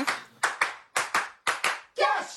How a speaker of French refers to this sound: Et quand vous êtes en studio, vous faites des cours pour apprendre à applaudir.